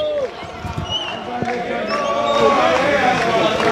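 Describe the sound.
An outdoor crowd of about 100 to 200 people cheers and shouts as Netanyahu leaves Aryeh Deri's house, surrounded by bodyguards, and walks to his car. Many overlapping voices, scattered claps cutting through. The roar is steady and fairly loud throughout, growing slightly fuller toward the end.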